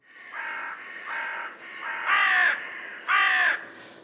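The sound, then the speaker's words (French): A carrion crow caws four times in a steady series, each call harsh and drawn-out. The last two are louder than the first pair, with no voices present. “Bon, ça, euh, par contre, c'est une corneille.”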